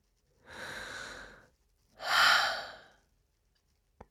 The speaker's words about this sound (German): Atme nochmal tief ein durch die Nase und atme aus durch den Mund.